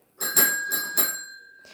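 A bell rings three times in quick succession, its bright metallic tone lingering and fading out afterward. It sounds clear, with no voices.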